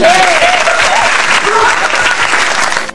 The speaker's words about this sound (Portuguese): Por favor, aplausos